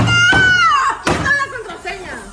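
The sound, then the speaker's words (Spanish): A woman slams a phone hard against a table, making a couple of sharp thuds beneath a loud, agitated voice that talks throughout. “Eh, ella dice, chifló a su madre el teléfono, lo golpea contra la mesa”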